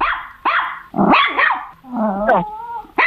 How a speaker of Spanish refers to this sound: Perro. Un perro ya, pero puedes eh, afinar un poquito porque... Un caniche. Un caniche. Eh, casi, casi.